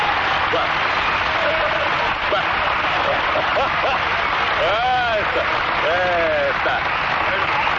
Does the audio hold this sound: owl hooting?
no